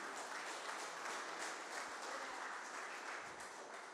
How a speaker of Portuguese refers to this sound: Aplauda a Cristo, queridos.